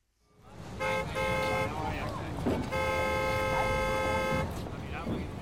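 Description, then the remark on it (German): Two long, loud car horn blasts, one short and one held for nearly two seconds, ring out over a constant roar of traffic and crowd chatter on busy New York streets crowded with millions of people. “Mehrere Millionen Menschen tummeln sich auf den Straßen, Autos fahren herum, das ist ein richtiges Gewusel und Gewimmel.”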